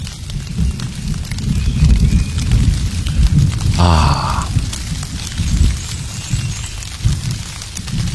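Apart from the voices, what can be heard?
rain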